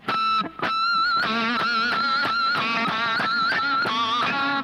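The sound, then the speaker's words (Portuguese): A heavily distorted electric guitar plays a run of loud notes, each with a shrill, squealing pinch harmonic, made by picking the string and then lightly touching it with a finger, that screams high above the chord, continuing without any talking. “Isso, é a palhetada e logo em seguida o meu dedo encosta na corda de forma muito sutil.”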